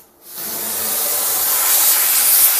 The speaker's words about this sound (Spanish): Le enchufó un tubo y genera un ruido como es el que vais a escuchar, la vaporeta.